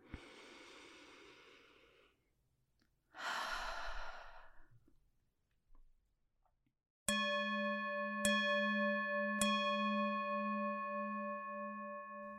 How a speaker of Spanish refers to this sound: La paz comienza conmigo. Toma una respiración profunda.